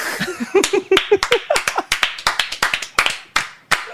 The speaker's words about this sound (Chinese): 鼓掌了，鼓掌了，很好。